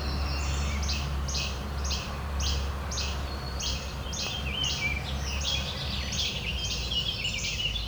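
Flycatchers call over and over in a steady series of short, bright notes, clear, with a constant low rumble of background noise underneath.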